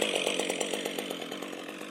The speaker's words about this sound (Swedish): Nu står jag här i Finsta i Bro på en eh, gräsplätt intill skogen där det pågår full aktivitet. Nu drar de igång motorsågar här eh, till något som ska bli en slags trevlig sittplats så småningom tror jag.